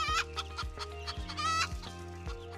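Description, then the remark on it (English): Several hens cluck and squawk in quick, overlapping bursts, fairly loud, in a hen house on farmland on the outskirts of Melbourne, Australia, over a steady low thumping rhythm underneath. No one speaks. “Coco, our German Shepherd, believed that she was a fierce hunter, chasing large livestock and ruffling feathers in the hen house.”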